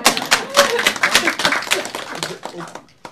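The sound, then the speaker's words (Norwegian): An audience claps steadily for about three seconds, many hands making a dense, crackling patter that stays fairly loud throughout, with some voices mixed in underneath. “Og det er det klappe, ja. ja, klapp i vei.”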